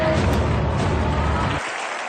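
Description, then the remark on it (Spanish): An audience applauds a contestant expelled from the academy by unanimous jury decision, a dense, steady wash of clapping for about a second and a half, then it cuts off abruptly, leaving a faint low murmur. “Te llevas este aplauso del público.”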